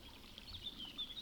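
A steady, rushing burble of a forest stream flows continuously, with faint high bird chirps flickering above the water; no voices.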